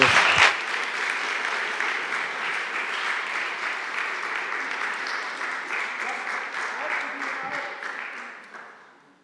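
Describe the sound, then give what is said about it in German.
A church audience claps steadily for several seconds after a service, a dense, even wash of many hands that holds strong before tapering off at the end. “Ich finde es ist ein Applaus wert eigentlich.”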